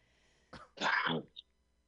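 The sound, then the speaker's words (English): A rough cough from one person: a brief breathy burst followed by a louder, harsher hack with a throat-clearing quality, then a tiny click and quiet; the person then stands. “coughs then stands.”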